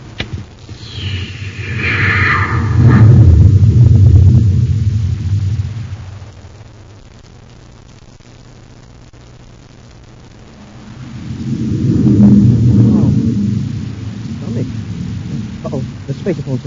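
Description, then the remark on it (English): Deep roaring rumble of a rocket blasting off swells up loudly, fades to a low hum, then surges again in a second heavy roar with crackling noise on top. “Stand by for blastoff.”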